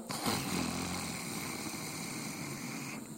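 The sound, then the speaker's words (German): A long, rasping inhale made with a deliberate snoring sound during a seated breathing exercise, a steady rough rattle in the throat lasting about three seconds, fairly loud and continuous, with no talking. “Dann atme ein mit dem Schnarchklang.”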